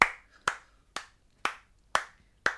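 Six slow, evenly spaced handclaps, about two per second, sharp and close, like one person's deliberate applause, with quiet pauses between each clap and no talking.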